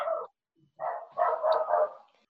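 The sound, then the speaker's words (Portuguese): A female pet dog barks in a few quick bursts, one short yap, a pause, then a longer run of barks close together, moderately loud with no talking. “Acho que a cachorra da Bel estava querendo dar opinião e a Bel não estava querendo é, não.”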